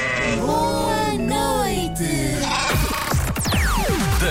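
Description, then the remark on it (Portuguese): A ram bleats loudly, one long quavering bleat followed by a burst of shorter, wavering bleats, with no one talking. “Mas eu não conseguiria dormir porque iria ouvir o carneiro fazer.”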